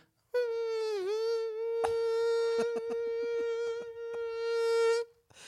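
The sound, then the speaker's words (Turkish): A person imitates a mosquito's whine in the Nihavent makam with one sustained, nasal buzzing hum lasting about five seconds. It dips briefly in pitch early on and has a few faint clicks partway through. Steady. “evet nihavent bir sivrisineği e, canlandırdığınızı evet.”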